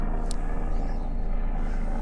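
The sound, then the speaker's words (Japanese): A helicopter flying overhead, its heavy, steady low rumble filling the whole stretch at a fairly loud, constant level with no voices. “ヘリすごいな。”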